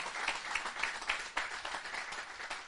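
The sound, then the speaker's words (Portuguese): A church audience applauds a couple steadily, many hands clapping in a dense, continuous patter with a few sharper claps standing out, fairly loud throughout. “Podem bater palmas se quiserem.”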